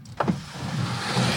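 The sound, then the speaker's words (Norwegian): A car's power window whirs open in one steady, motorized hum, starting with a brief click and running under a wash of road or wind noise, with no voices. “Nei, ikke åpne vinduet, slipper du inn.”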